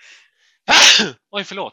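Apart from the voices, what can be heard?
sneeze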